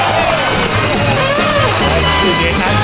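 The audience of the game show Affari Tuoi, hosted by Amadeus, breaks into loud, sustained applause with some cheering for a contestant, a dense steady wash of clapping that holds for about three seconds over a low musical background.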